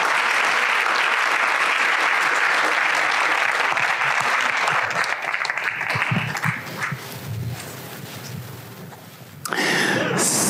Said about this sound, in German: Hey, nochmal einen dicken Applaus an unsere ja. Familien. Danke.